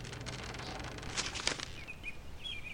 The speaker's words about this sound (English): The owl flapped its wings and flew up into the sky.